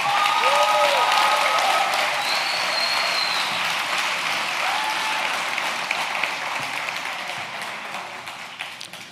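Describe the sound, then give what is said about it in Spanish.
A church audience applauds God loudly and steadily for several seconds, a dense wash of clapping with a few scattered whoops and cheers rising over it, gradually thinning toward the end. “Oye, yo creo que Dios se merece un mejor aplauso que eso.”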